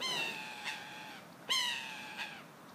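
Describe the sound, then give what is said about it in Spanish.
A bird gives two loud, harsh, drawn-out calls about a second and a half apart, with faint background noise and no talking. “¿Escuchas el ave?”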